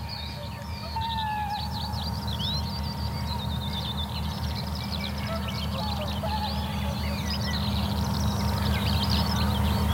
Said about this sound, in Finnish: No nyt joutsen pari lentää tuosta juuri ohi ja toitottaa oikein komeasti. Se on hieno kansallislintu.